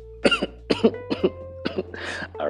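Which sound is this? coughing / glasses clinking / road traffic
coughing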